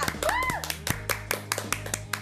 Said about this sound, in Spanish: Así que un aplauso